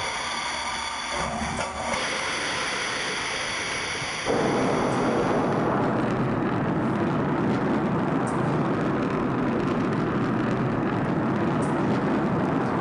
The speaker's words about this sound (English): Because this is, this is actually amazing when you think about it. You've never seen this before a rocket blasting off, and then. Yeah, so that rocket is about the size of a 12 story building.